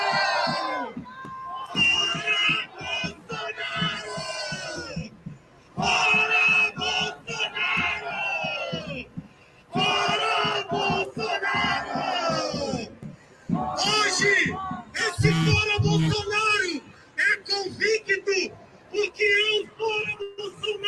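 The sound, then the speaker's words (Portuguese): A large protest crowd in Rio de Janeiro chants "Fora Bolsonaro" in loud, rhythmic bursts, voices rising together in repeated phrases separated by short pauses, with shouting and cheering mixed in. “Eu queria que cada um e cada uma puxasse o mais alto fora Bolsonaro do Rio de Janeiro!”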